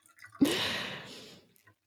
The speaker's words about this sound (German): Ich gieße jetzt einen Tee ein. Achtung, vielleicht plätschert